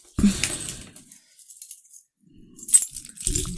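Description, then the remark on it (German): A bunch of keys is tossed onto a table, landing with a bright metallic jangle, followed by a quiet pause, then a second clinking rattle of keys near the end, fairly loud. “So, Schlüssel werfen wir mal wieder hin. Auf den Tisch.”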